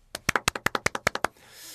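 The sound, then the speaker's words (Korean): A brief round of hand clapping in honor of a musician, who is not present: about a dozen sharp, crisp claps in a quick, steady rhythm lasting just over a second, then a soft hiss as it stops. No one speaks. “아무튼 다시 한번 지금 이 자리에는 없지만 … 씨를 위해서 박수 한번 치도록 하겠습니다.”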